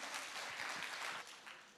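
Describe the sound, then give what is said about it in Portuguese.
A church audience applauds a couple from the church who climbed Aconcagua, a dense wash of many hands clapping at a steady level before tapering slightly toward the end, with no voices standing out. “Vamos dar palmas para eles aqui, né?”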